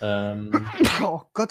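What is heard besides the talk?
sneeze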